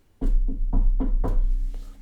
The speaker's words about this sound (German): Ich klopfe auf Holz.